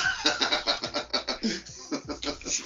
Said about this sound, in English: the Rooster agrees with you